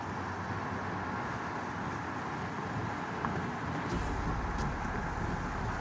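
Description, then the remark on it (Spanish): Steady, continuous road rumble and engine drone of a car cruising at speed along the road toward Talca, with a broad hiss of tyre and wind noise that stays constant throughout; no voices. “Unas horas antes de que lo mate, Cristian maneja el auto de su padre por la ruta, en dirección a Talca.”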